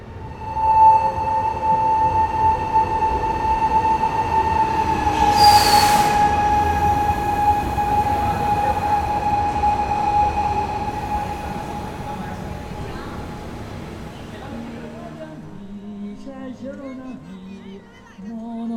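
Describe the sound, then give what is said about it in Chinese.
A train pulls into a station with a loud, steady rumble and sustained high, tonal brake squeals. A brief hissing burst comes partway through, and the noise then winds down to quiet. “进站的声音中好像有个旋律，再听一遍。”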